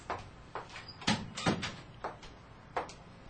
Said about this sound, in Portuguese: a porta se abriu e Juliana entrou